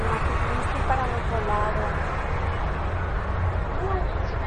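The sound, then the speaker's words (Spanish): A steady roar of road traffic fills the scene, cars streaming past on the adjacent road just outside a shopping centre's grounds in a continuous wash of engine and tyre noise, with faint voices mixed in. “Bueno, hemos conseguido salir de lo que es el recinto del centro comercial, porque pasan los coches por la carretera de al lado.”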